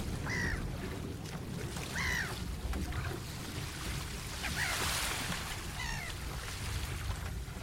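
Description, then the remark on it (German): Seagulls cry out a few times, around three short squawking calls spread apart, over a steady rumble of water and waves lapping against a boat, with no voices. “Dann könntest du Möwen und Wasser einspielen.”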